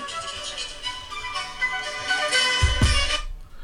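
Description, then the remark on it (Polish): A second mobile phone, called from another phone to demonstrate how it works, rings with a bright, melodic ringtone that plays continuously for a few seconds, followed by a low thump of handling as it is answered before it cuts off. No one speaks. “No to jest mój telefon.”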